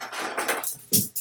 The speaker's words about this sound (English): uh, if you hear noises in the background, that's my cat. Cat's having a breakdown. Is being a little freaking pill right now um, because he is not the center of my attention at the moment. So he's knocking shit off of the desks.